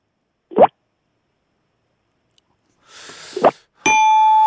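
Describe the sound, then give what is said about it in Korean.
Someone imitates water drops with their mouth: two short, rising plops several seconds apart, with a breathy hiss before the second, followed by a steady ringing tone that runs to the end. “물방울 세 개.”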